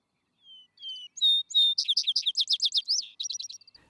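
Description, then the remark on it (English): A songbird in an open field sings a short, clear phrase alone: a few thin whistled notes rising into a quick, bright run of rapid trills that fades at the end. “the grass, the stones, the stubble, the furrow, the quiet herds, and the warm twilight among the hills are all subtly expressed in this song.”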